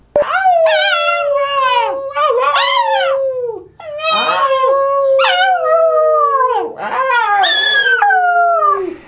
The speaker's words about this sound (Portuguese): Se você uivar com o seu cachorrinho, provavelmente ele vai relembrar essa ancestralidade e vai uivar junto com você.